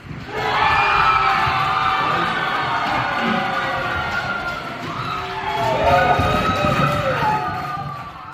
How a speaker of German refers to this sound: Auf die Verkündigung vom Nationalratspräsidenten Erik Nussbaumer folgt lauter Jubel.